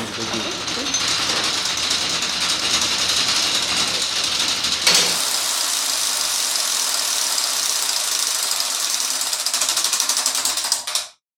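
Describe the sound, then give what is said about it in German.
A loud, steady mechanical clatter and whir of a tower clock mechanism in Graz running, with the low rumble dropping away halfway through and no distinct bell strikes standing out. “Das heißt, dann setzt sie wirklich das ganze Werk in Bewegung.”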